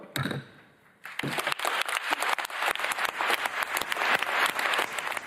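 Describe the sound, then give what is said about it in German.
Applause from a large conference plenary audience in Dubai as a final draft is approved with no objection: dense, overlapping hand claps start abruptly after a brief quieter moment, then hold steady and fairly loud, with no one speaking over them. “Vielleicht hört man im Hintergrund das Klatschen.”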